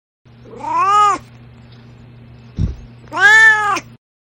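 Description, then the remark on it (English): A cat named Duarte meows twice, two drawn-out, wavering cries with a brief soft thump between them, fairly loud over a faint steady hum, with no talking. “Now it is time for Duarte's corner where my cat Duarte shares his opinions.”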